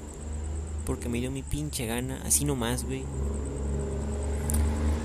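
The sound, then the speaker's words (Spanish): A heavy truck rumbles past, its low engine drone steady throughout while a man talks over it. “Por cierto, disculpen el ruido de camión, güey.”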